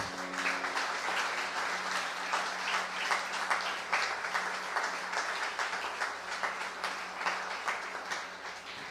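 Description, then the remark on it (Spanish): Many people clap steadily for several seconds as an offering of applause to the King (God), a dense, sustained wash of applause with a faint low hum underneath and no talking. “Voy darle una ofrenda de palmas al Rey.”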